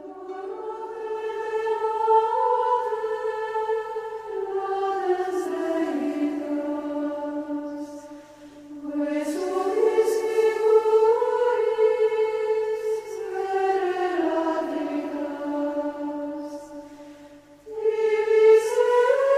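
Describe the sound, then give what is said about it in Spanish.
The Gregorian chant hymn Adoro te devote, written by Saint Thomas Aquinas for the liturgy, sung unaccompanied: one slow, smoothly gliding melodic line in long sustained phrases, separated by brief pauses for breath, at a steady moderate loudness. “O sea, que luego los adaptaron, y este con música gregoriana, hay algún otro que no.”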